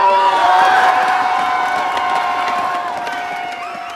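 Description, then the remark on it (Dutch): A large crowd of skaters of all generations, gathered in great numbers on the Spui square in The Hague, cheers and shouts together, a dense wash of many voices with whoops rising above it, staying loud throughout and easing off slightly toward the end. “Zojuist hoorde u audio van Steven van Lummel op het Spui te Den Haag. Hier waren skaters van alle generaties in grote getalen bijeengekomen”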